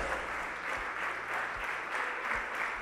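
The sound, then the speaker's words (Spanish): Sustained applause from an audience at a church service, given to the Holy Spirit of God, a dense, steady wash of many hands clapping at once with no pauses, fairly loud throughout and no clear voices on top. “Dele ese fuerte aplauso al Espíritu Santo de Dios.”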